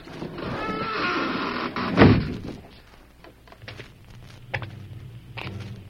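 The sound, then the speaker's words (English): A cleverly concealed heavy door at the entrance of a dark mine shaft slides along its track with a rumbling scrape, then shuts with a solid thud, followed by faint shuffling and a couple of soft knocks. “Behind them, a cleverly concealed door slid shut.”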